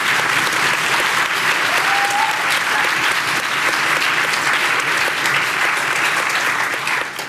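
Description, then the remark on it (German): Sustained audience applause, a dense wash of many hands clapping at a steady loud level for several seconds before beginning to fade at the very end. “Applaus”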